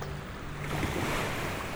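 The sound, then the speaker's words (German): A steady, broad wash of surf rushes up the shore, swelling slightly after a moment and holding at a constant roar. No voices, just continuous breaking waves. “rauscht das Meer”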